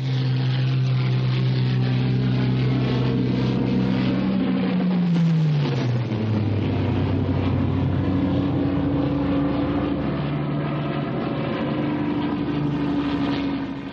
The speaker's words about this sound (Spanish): Un destacamento motorizado pasa por la carretera cercana.